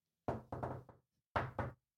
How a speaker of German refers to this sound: Wenn ich über jemanden stehe, den ich kenne, dann wird da auch gerne mal eine halbe Melodie gegen geklopft.